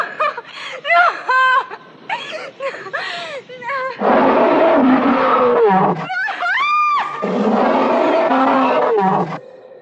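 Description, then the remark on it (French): High, wavering shrieks from actress Jessica Lange give way to Kong's roaring in the 1976 film King Kong, two long, loud, rasping bellows that dominate the scene, with sharp cries breaking in between them, in the scene where Kong discovers the young woman offered to him as a sacrifice. “Tout comme Favre avant elle, Jessica Lange crie, et on entend aussi le rugissement de Kong.”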